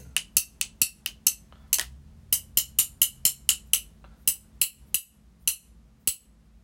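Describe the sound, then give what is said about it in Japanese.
Around twenty crisp, bright taps on the side of an instant coffee jar, glassy clinks coming in quick uneven bursts with short pauses between groups, each ringing briefly. No one speaks. “で、側面。”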